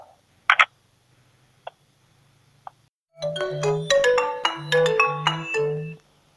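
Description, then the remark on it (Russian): A few sharp clicks and taps, then a bright electronic telephone ringtone plays a short melodic run of stepped beeping notes for about three seconds before stopping, while calling back the Biysk media group. No one speaks. “Так, перезваниваем бийскую медиагруппу.”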